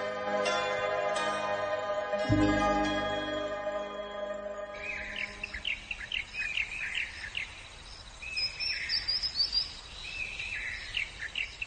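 A sustained musical tone fades out, then birds sing in the reeds of Nansha Wetland in Guangzhou, China, heard from a boat on the waterway: repeated bright, high chirps and short trills at a steady, lively pace over a soft hiss, with no talking.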